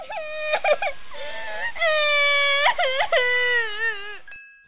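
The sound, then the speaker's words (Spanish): A small girl cries outside a dormitory at night in long, wavering wails, several drawn-out sobs rising and falling in pitch with brief catches between them, loud, with no talking. “Ya cuando todos estábamos profundamente dormidos, yo tenía insomnio y claramente escuché a una niña pequeña llorando afuera del dormitorio.”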